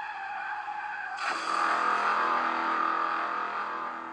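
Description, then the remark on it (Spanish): A loud, sustained tire screech of a motorcycle skidding after its rider suddenly loses control, rising sharply about a second in and holding steady until the end, with no voices and no audible crash. “Lo increíble es que mientras el muchacho seguía haciendo chistes sobre Annabel, perdió de repente el control de la motocicleta y se estrelló contra un árbol.”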